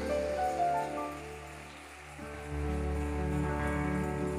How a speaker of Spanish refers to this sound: Dios te bendiga. aplauso fuerte.